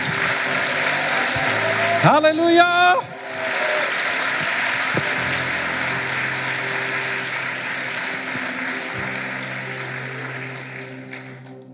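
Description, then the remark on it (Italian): A church audience applauds God steadily throughout, a dense wash of clapping that carries on without a break, while a voice calls out exuberantly near the start and the applause fades slightly toward the end. “Facciamogli un applauso meraviglioso.”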